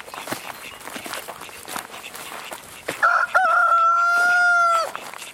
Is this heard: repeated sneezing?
no